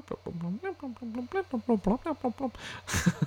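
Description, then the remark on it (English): A voice closely imitates the humming alert tone of everyone's trackers going off in a cantina after a child is stolen: a quick run of warbling, buzzy pitched hums in steady rhythm, ending with a short breathy burst. “Like all of those trackers going off, you'd think they go beep beep beep beep while they're all in that cantina there, but it's just like”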